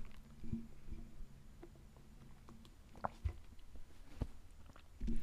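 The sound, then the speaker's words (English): Someone sips a drink, soft wet mouth clicks and a faint swallow scattered over a few seconds of near-quiet with a low background hum. “I'm just gonna let that sit with you real quick, while I take a sip of my drink.”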